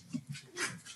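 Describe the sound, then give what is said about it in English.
A dog whimpers softly in the background, a few short, high, whiny sounds in quick succession, faint, with no one talking over them. “that is my dog. dog. In the background.”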